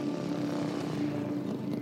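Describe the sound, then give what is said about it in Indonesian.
A motorcycle engine drones steadily at a constant pitch as a man rides it at even speed, carrying a passenger to an agreed meeting place. Fairly loud, with no voices. “Kini ia diantar oleh Pak Heri menggunakan sebuah motor menuju tempat yang sudah dijanjikan.”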